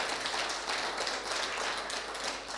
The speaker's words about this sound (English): 47 years. Do you know what? That's that that that's worthy of honour. That is because uh, you know I've been now in the senior leader position. But let's give him a clap.